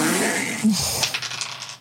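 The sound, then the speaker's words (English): Dice rattle and tumble across a tabletop, a quick run of light clicks and clatters that settles after about a second, with a low background hum. “Thank you, Dice.”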